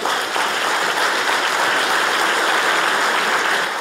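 Sustained audience applause, a dense, steady wash of clapping hands that stays loud and even throughout, with no voices standing out.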